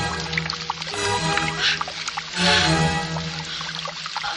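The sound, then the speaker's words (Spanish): Shower water runs in a steady, splashy hiss that swells louder around the middle, with a low sustained musical tone humming underneath and no one speaking; a woman showering in a washroom outside a house. “Bajo la ducha, el cuerpo de Gertrudis está tan caliente que el agua se evapora al contacto con su piel.”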